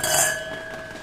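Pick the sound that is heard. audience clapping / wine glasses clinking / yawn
wine glasses clinking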